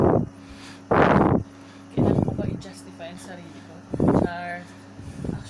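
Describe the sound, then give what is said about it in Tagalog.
An electric fan, just switched on because it is hot, runs steadily, its low motor hum and airy whoosh constant throughout, while short bursts of voice and laughter break in over it. “Tingnan, buksan muna natin electric fan.”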